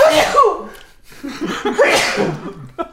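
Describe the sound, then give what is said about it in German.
A loud sneeze bursts out, followed after a short pause by another forceful, breathy sneeze with some voiced, gasping sounds around it. “Gesundheit.”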